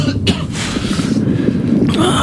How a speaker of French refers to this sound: Avec tous ces gaz, putain, ça racle la gorge.